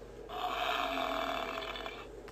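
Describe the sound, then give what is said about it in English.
A buffalo gives one long, rough grunt lasting about two seconds, fairly loud with a raspy, breathy texture, then it cuts off. “On the plains, the buffalo grazes on grass.”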